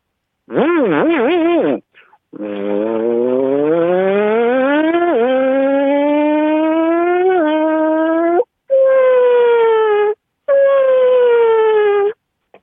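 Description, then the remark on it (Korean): A voice imitates a high-performance motorcycle overtaking two scooters (city bikes) from behind, starting with a wavering buzz and then revving in long rising whines with gear-shift drops, loud, broken by short pauses for breath. “제가 뒤에서 달려가면서 고두 그 대를 제쳐가는 소리를 내겠습니다.”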